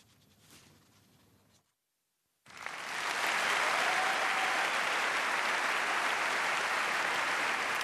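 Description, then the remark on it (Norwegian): After a faint murmur and a moment of silence, an audience bursts into loud, sustained clapping, a dense, steady wash of many hands that holds at full strength. “Alle klapper, men hvem begynte?”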